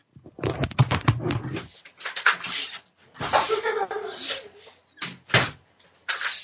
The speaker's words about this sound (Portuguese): Rapidão, eu vou só fechar a porta aqui pra você não ouvir mais. Rapidão, tá?